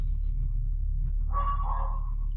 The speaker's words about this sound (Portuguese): meu cachorro tá latindo.